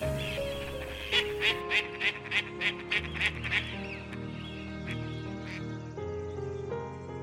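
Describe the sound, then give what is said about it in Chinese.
Flocks of wild ducks in the distance, by the Daqing River in northern China in winter, quack as they flap their wings and fly up, startled by footsteps. There is a quick series of about ten loud, nasal calls during the first few seconds, then silence while a steady, tonal background continues underneath. “穿过稀薄的河岸树林，远处一群群野鸭子随着我们的脚步声。扑翅着翅膀向高处散开飞去。”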